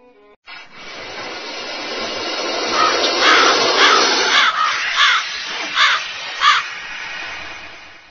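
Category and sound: bird, eagle screech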